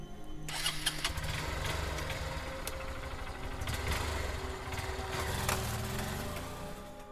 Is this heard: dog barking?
no